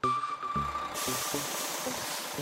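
A bus idles with a low engine rumble and a brief tonal whine, then a loud, sustained air-brake hiss bursts out and continues steadily to the end.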